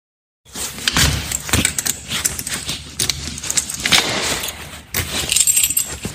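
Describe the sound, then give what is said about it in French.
Keys jangle and clink continuously while a front door is locked at about 8:28 in the morning as the person leaves for a hairdresser appointment, checking several times that the door is shut, with a few sharper metallic clicks and thuds mixed in; no one speaks. “J'ai un tic, il faut que je vérifie plusieurs fois que la porte est fermée.”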